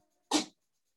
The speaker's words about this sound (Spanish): Mi gato estornudo perdón.